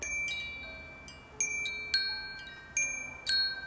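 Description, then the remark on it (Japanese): A Woodstock Chimes Temple Bells Trio Terra metal wind chime rings in a loose, irregular sequence, several bright tones struck one after another with long shimmering sustains that overlap and slowly decay, clear with no talking. “Wood stock社のウィンドチャイム買っちゃった”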